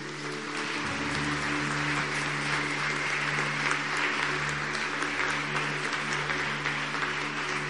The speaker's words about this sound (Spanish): Y vamos a darles todos un aplauso a ellos.